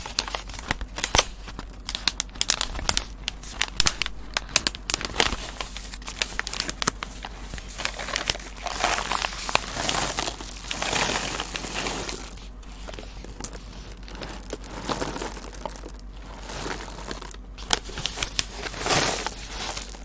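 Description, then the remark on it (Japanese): Continuous crinkling of a plastic bag of coffee beans bought at Tully's, with irregular crackling bursts and soft rustles over about twenty seconds, no voices. “タリーズで買ってきたコーヒー豆の音です。”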